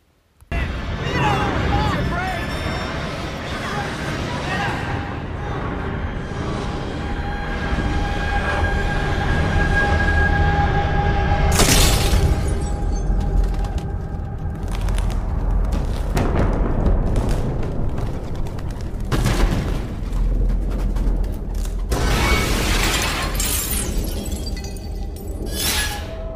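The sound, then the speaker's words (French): A loud, chaotic crash of a bus leaving the road and striking a tram, the 17 September 1925 accident in which Frida was gravely injured: steady heavy metallic rumbling throughout, broken by sharp bursts of shattering glass and debris, several in quick succession near the end. “L'autobus sort de la route et percute un tramway.”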